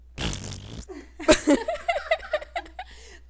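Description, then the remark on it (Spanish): A voice imitates a wet, raspy vaginal fart with a buzzy blown-lips sputter lasting under a second, followed by bursts of rhythmic laughter. “De repente se escucha eso y ok, no fue un gas, fue un pedo que salió de mi vagina.”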